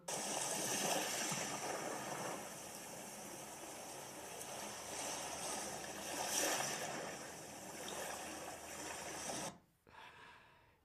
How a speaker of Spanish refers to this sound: Yo escucho el mar. Muy bien, yo escucho el mar.